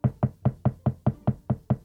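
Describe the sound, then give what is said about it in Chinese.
A woodpecker pecks at an old oak tree in a steady run of about nine hollow, woody knocks, evenly spaced and fairly low-pitched, with no voices. “当老鼠听见啄木鸟在老橡树上啄出“扣扣扣”的声音时”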